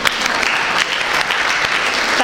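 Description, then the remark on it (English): A crowd applauds steadily for a person who wore a lion mask during a story, a dense wash of many hands clapping at once, loud, sustained for a couple of seconds without a break. “I think you deserve a round of applause”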